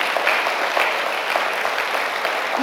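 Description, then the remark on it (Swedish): Audience applause fills the whole stretch, a dense, steady wash of many hands clapping at an even loudness with no voices on top. “Det här, alltså, det här måste få en applåd.”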